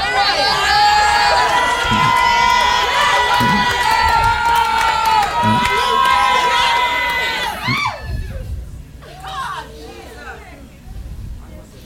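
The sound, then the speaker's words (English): A large audience screams and shouts together, a loud, dense wall of overlapping voices for several seconds before it drops off into scattered, quieter calls and murmuring. “When you go get up and scream and say, I want to live. I want to live.”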